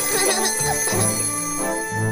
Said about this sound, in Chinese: 呃，不管里面是什么，它越来越响了。 你知道它听着像什么吗？闹钟，很多，哈哈哈哈，是闹钟，哈哈哈哈哈。